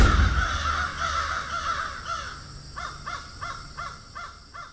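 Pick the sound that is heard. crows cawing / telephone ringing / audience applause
crows cawing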